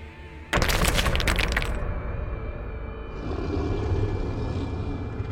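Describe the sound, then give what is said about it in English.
A sudden heavy crash of a creature landing on a woman and crushing her, with loud crunching and cracking for about a second, then settling into a low, steady rumble that lingers. “She was dead before it even fully compressed her.”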